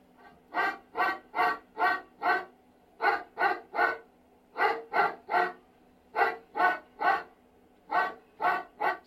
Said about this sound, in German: Haben wir noch was anderes mit 80? Ja, da haben wir zum Beispiel einen Hundebellen in drei Meter Entfernung.